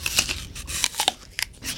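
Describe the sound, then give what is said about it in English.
Crisp crunching of someone biting and chewing an apple, a series of sharp, bright crackles and snaps at an uneven rhythm, fairly loud with no talking. “Did you notice the crunch? It was much more pronounced crunch.”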